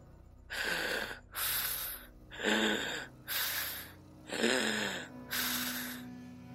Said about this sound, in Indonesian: Dan ketika di luar tenda itu, dia mendengar ada suara nafas yang mengendus sangat berat.